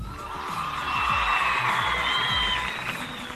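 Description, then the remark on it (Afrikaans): An audience applauds steadily for a few seconds, a dense wash of clapping with some cheering and whoops rising above it, holding at an even, fairly loud level throughout, applauding two school rugby players chosen for the Blou Bulle team. “twee van hulle vir die Blou Bulle span gekies word wat ek dink verdien 'n baie goeie hande klap.”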